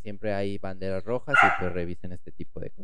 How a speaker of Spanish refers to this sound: Una disculpa por los ladridos de, las de la perrita